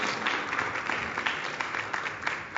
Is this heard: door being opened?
no